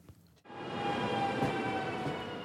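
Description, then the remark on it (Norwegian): A train rumbles past on the rails, a sustained roar with steady metallic tones and a faint high whine, starting abruptly after a brief quiet moment. “Det blir ikke så ofte du får høre lyden av tog denne sommeren.”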